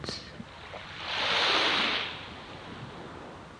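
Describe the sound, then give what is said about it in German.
A single ocean wave swells up and washes over a sandy shore, building to a soft hiss and receding, with a quiet, steady surf murmur before and after. “Mit jeder Welle immer mehr Schwere.”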